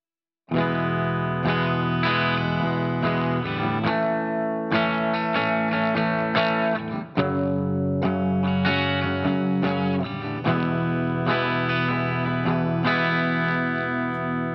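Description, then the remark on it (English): A pop chord progression, E, A, F-sharp minor, E, played as four sustained, heavily effected guitar chords, each ringing for about three seconds, loud and steady with no talking. “Uh, it's E A F sharp minor E. So uh, if I just play that real quick,”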